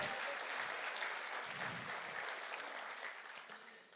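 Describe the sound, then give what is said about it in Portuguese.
An audience claps steadily in sustained, dense applause for Jesus, loud at first before gradually easing off toward the end, with no voices standing out. “uma salva de palmas a Jesus aí, ó.”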